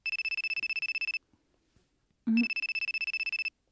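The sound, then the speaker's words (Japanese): A mobile phone ringtone for an incoming call trills in rapid, evenly pulsed bursts, stops briefly, then rings again after a short low thump, loud with no talking. “愛する一人娘電話なんかしてきたことないのに”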